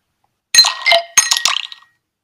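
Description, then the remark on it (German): Ice cubes drop into a glass in a few quick bursts, bright clinks and rattles ringing clear, then settling with a short tinkling tail. No voices. “Sind das Eiswürfel, die in ein Glas fallen?”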